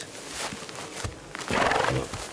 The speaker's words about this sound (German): Die Pferde lieben es, sich zu wälzen, sobald sie von ihrer Last befreit sind.